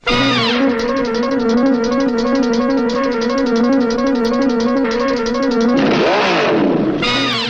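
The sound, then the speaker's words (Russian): A loud, blaring brass chord in a theme song's intro holds steady and dense, then a swooping, engine-like sound effect sweeps through near the end before the brass blast returns. No voices. “громкие духовые сбивки и звуковые эффекты во вступлении.”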